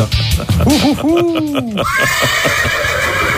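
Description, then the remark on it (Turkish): A person imitates a horse's whinny with a short series of wavering, rising-and-falling vocal neighs, loud, trailing off into a thin, higher wavering note. “yani sadece zayıf bir kişnemeyle geçecek.”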